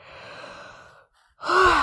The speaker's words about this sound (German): Ja, jetzt muss ich gähnen. Also hier geht jetzt auch Energie weg.